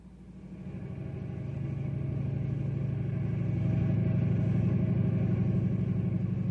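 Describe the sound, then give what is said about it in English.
The Ranger snowmobile's engine drones steadily as it glides along the highway into Knotty Pine, a low rumbling motor hum that swells slightly in the first seconds and then holds an even, continuous pitch with no voices. “It's the Ranger snowmobile gliding along the highway into Knotty Pine.”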